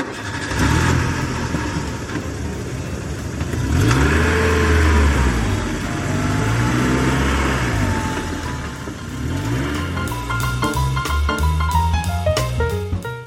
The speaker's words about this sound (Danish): Afsted med os, siger faren højt og starter bilen til trampolinland.